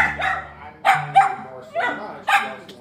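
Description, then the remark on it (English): A dog named Maple barks loudly and repeatedly, five or so sharp barks coming in quick, uneven bursts over a few seconds. “Hmm and Maple is a very sweet dog with a very loud, never ending bark.”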